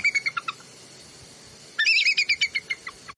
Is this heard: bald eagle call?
yes